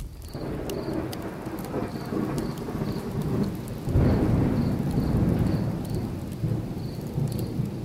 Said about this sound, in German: Die äh, letzte Gewitterfront ist an uns vorbeigezogen